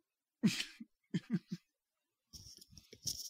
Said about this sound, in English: Um, I, actually have to blow my nose, so I'm going to take my headphones off for a second.